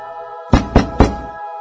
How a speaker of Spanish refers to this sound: Tres fuertes golpes resonaron en la puerta de madera.